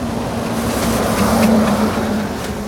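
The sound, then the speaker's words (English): A bus engine roars steadily, its low droning hum swelling slightly mid-way as if accelerating, with a constant rush of road noise and no voices. “We sped away from the pudding as its jelly like banks chased the bus.”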